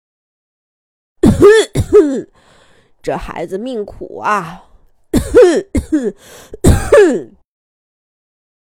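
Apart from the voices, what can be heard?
coughing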